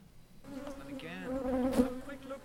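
A dense, angry buzzing of many killer hornets swarming and attacking people, a steady droning hum that swells louder toward the middle with no voices present.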